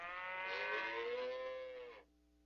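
A single long cow moo, loud, holding a steady, slightly falling tone for about two seconds before cutting off abruptly. No one speaks.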